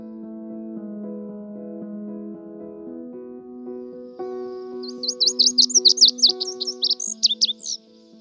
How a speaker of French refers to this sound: Bien, c'est le bruant des neiges. Mais ça, c'est son nom poétique, si l'on veut car son nom scientifique, là, c'est Plectrophénax hein, nivalis.